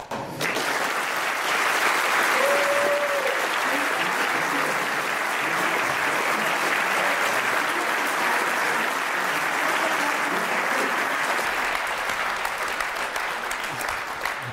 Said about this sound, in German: Und am Beifall hatte ich auch das Gefühl, das war nicht so verkehrt.